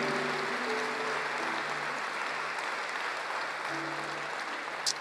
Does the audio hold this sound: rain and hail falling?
no